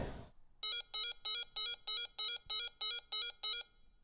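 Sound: doorbell ringing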